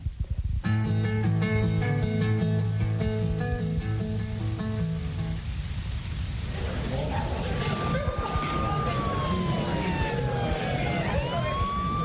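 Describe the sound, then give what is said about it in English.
An emergency vehicle siren as an emergency comes in: a loud, steady blaring horn tone first, then a wailing siren that sweeps up and down in pitch over a constant low traffic rumble. “It sounds like another emergency coming in.”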